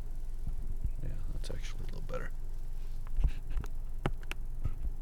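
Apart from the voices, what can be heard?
microphone being adjusted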